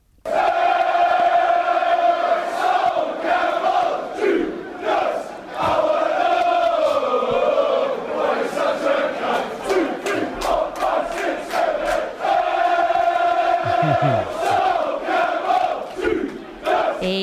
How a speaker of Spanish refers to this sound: Los fieles de White Hart Lane lo etiquetaron como un Judas y le dedicaron esta hermosísima canción que así lo dice.